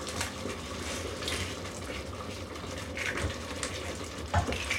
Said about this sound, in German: Ich, ich mache das eine Ei, gieße ich jetzt in die Mitte noch rein. Oder hier in das eine hier mit rein.